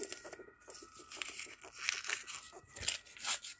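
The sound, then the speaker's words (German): Small slips of paper for a random draw are torn and crumpled, a run of irregular crinkling, rustling bursts with brief sharp rips, fairly quiet and with no talking. “Ich habe das einfach auf ein paar kleinen Papieren gemacht.”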